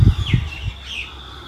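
Faint birds chirp outdoors at sunrise, with a couple of brief high sweeping calls over soft low rumbling thumps and quiet background ambience. No one speaks.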